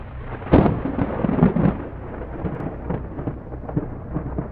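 Thunder, presented as heard beneath the low, cloudy, dusty sky of Venus, rumbles heavily, with a loud booming burst early on that rolls into a deep, uneven low rumble, gradually easing off with scattered softer grumbles. No one speaks.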